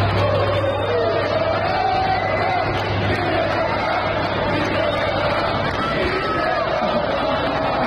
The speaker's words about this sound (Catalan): Doncs dimecres els aficionats que es van desplaçar fins a Vilareal per veure el partit del Girona li cantaven això a Mitchell.